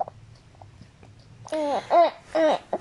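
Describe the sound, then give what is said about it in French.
A baby, growing impatient, babbles and fusses in three loud, rising bursts of vocal sound after a quiet opening, each with a strained, whiny edge. “je pense qu'il est l'heure parce que là, mon petit bébé commence à vraiment s'impatienter”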